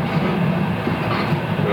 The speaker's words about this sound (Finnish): Tämä juna pysähtelee todella todella usein. Junan työntekijät katsovat ulos, ulos varmaan niinku, niin tarkistaa, että, että, tota, että on turvallista jatkaa.